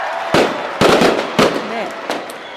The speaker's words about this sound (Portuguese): Eu acho que podia ter barulhos de fogos. Pum, pum. é, pum, tipo pum.